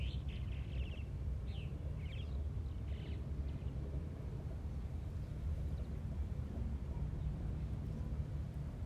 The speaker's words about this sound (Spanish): Siento los pájaros que me cantan, que me acompañan en esta meditación.